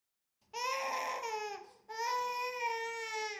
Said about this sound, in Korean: 바로 그 순간, 잠에서 깬 온딘이 면도날처럼 귀에 꽂히는 울음소리로 정적을 뒤흔들었다.